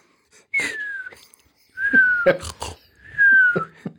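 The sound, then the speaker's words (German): A young boy snores loudly while asleep in three rhythmic breaths, each carrying a high, falling whistle-like wheeze mixed with rough, raspy bursts. No talking. “so wie Kinder halt schlafen, laut schneiden.”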